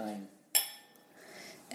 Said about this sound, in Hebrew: בוא נרים לחיים.